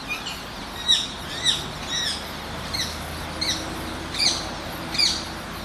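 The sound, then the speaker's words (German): Soft, chattering calls of rose-ringed parakeets in the evening, chatting among themselves rather than screeching in flight. They repeat every half second or so, short squeaky chirps and twitters against a low background hum, not loud, with no shrill screeching. “Und die Sprache der Halsbandsittiche zum Abend hin, also wenn sie nicht fliegend kreischen, sondern dann sich was erzählen, die ist auch besonders.”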